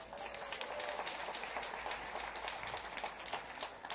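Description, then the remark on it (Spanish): A crowd applauds steadily, a dense wash of many hands clapping at an even level for the whole stretch, with no voices standing out above it. The audience is applauding the baby boomers among them. “Un aplauso para ellos.”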